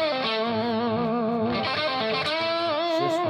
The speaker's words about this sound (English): That's a lot of guitars. Yeah. They're all killers. Yeah. Wall of sound.